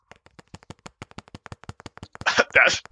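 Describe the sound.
Quick, light fingernail taps on a laptop, made as a drumroll, in a steady rapid patter, ending in two louder, broader bursts of sound near the end.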